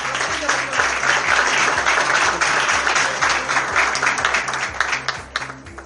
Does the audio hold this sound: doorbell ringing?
no